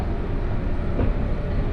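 A 117 series local train on the Kosei Line between Kyoto and Ono, Japan, rumbles steadily, heard from inside the carriage: a loud continuous low-frequency roar with a brief swell of rattling midway, and no voices.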